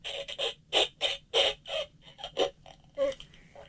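A sputtering fart noise made of about a dozen short, squeaky bursts in a quick, uneven rhythm, fairly loud, with no talking over it.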